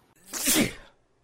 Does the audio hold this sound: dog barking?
no